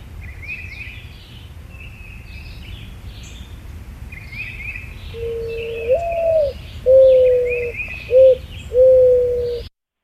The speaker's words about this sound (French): c'est un autre oiseau qui est très commun dans les, dans les jardins, c'est la tourterelle triste